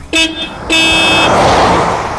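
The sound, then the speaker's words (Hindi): A car horn honks twice, a short toot and then a longer blast, and a loud rush of engine and road noise follows as the vehicle, called a kombi in Kenya, pulls away, setting off toward the Maasai Mara. “हमारी गाड़ी चल पड़ी मसाई मारा की ओर”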